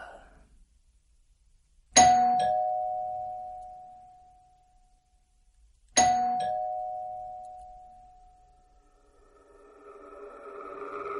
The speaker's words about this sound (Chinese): 可就在这个时候，文言听到客厅传来门铃的声音。